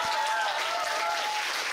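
An audience breaks into steady applause, a dense wash of many hands clapping at an even level for the whole moment, with no voices standing out.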